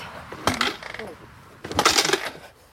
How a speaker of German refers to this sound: Dieses Motorrad wird angekickt.